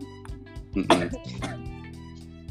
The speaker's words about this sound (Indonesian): oh lagi batuk juga iya guys